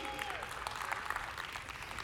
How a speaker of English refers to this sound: Now, I've asked Jesse Pruitt, our worship leader, to come to the stage to help me illustrate this. So, give Jesse a round of applause.